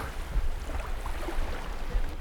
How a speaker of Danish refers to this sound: bølgerne. Det er høj solskin i, øh, på Bornholm.